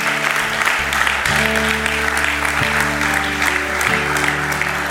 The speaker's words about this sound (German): Ihr dürft ihnen mal klatschen.